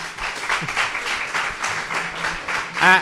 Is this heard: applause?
yes